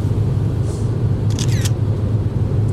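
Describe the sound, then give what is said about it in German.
A quick burst of several camera shutter clicks, sharp, taking another photo from a car driving on a German autobahn near Kassel, over the steady low rumble of the car. “Noch ein Foto.”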